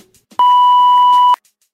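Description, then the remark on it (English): A single steady electronic beep, a clean mid-pitched tone lasting about a second, loud, prompting a caller to leave a question, with faint murmuring voices underneath. “All right, now go ahead and leave your question at the sound of the beep.”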